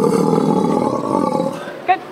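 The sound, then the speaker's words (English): A 24-year-old, 400-pound female Steller sea lion at the Vancouver Aquarium lets out a loud, sustained guttural roar lasting over a second, then trails off before a brief, sharper call near the end. “Meet Sitka, a 24 year old, 400 pound Steller sea lion”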